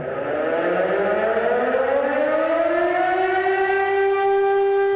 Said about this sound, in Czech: poledne zněly po celé republice sirény. Česko tak uctilo památku lidí, kteří zahynuli při střelbě v Ostravské fakultní nemocnici.